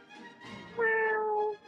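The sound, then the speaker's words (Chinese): A person's voice imitates a cat's meow, one drawn-out, steady tonal mew rising out of softer breathy sounds, fairly loud and lasting under a second. “我模仿的动物是猫。喵，喵，”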